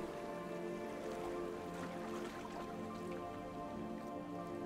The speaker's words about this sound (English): Slowing your boat, you hear the calm soft plops of gentle waves as you approach the shore.